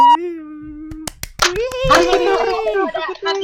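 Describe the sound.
A held vocal note gives way to a quick burst of four or five sharp hand claps from an audience whose applause is scored in a contest, followed by loud, excited voices rising and falling in pitch.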